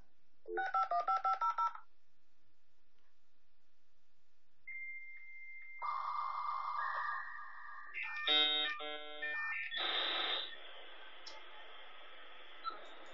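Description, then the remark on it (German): A dial-up modem dials a quick string of touch-tone beeps, then after a pause launches into its screeching handshake of warbling tones, chirps and harsh static hiss while connecting to the Internet. No voices are heard. “Ja, dann wurde, äh, wurde die Internetverbindung hergestellt und äh, man konnte sozusagen ins Internet gehen.”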